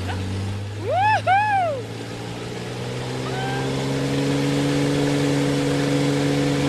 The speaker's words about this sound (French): Allez, respire. On va accélérer et puis on va décoller déjà avec l'avion.